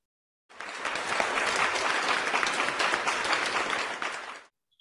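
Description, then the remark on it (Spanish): A crowd claps steadily for about four seconds, a dense wash of many hands that starts abruptly, holds an even loudness, then fades out quickly. No voices are heard. “Brindémosle un aplauso a ambos.”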